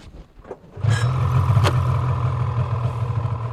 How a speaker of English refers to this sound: We travel to base camp by snowmobile, the most common form of transportation over the frozen ocean.